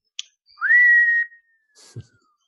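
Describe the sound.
A single sustained whistle imitating a falling bomb, holding a steady high pitch and drifting slowly downward, with a brief low thud and hiss near the end.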